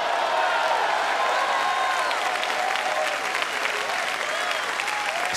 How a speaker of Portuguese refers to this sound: Dê um aplauso e um brado de vitória. Aleluia!